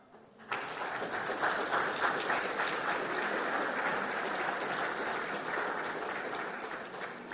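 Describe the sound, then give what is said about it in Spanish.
A crowd breaks into loud, sustained applause thanking architects for a presentation on renovating school buildings, starting abruptly and holding steady throughout, a dense wash of many hands clapping with no voices standing out. “Fuertes Aplausos para agradecer esta exposición de los arquitectos”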